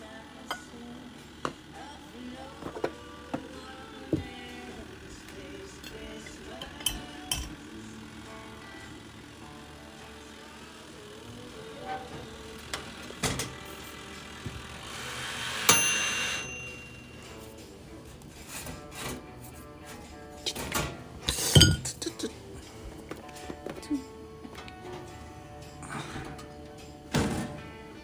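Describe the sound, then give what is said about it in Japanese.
Rasping and scraping as a toaster timer dial is twisted firmly to force the toaster off while bread toasting in it is about to burn, with scattered clicks, then a short sharp ding partway through before more faint handling noise. No voices. “ラジオを聞きながらパンを焼いていたら焦げそうになりトースターを強制終了した音はいはい 最後あちちちってねはいこれギューって回す音とかねいいですね”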